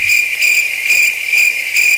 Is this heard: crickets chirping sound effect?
yes